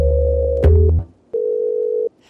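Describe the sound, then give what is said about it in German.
A loud, steady telephone dial tone hums with a lower buzz beneath it, shifts pitch briefly, cuts out, then returns as a clean, even tone for under a second, before a call to the Alpha Plus test studio in Essen. No one speaks. “Am Telefon begrüße ich jetzt”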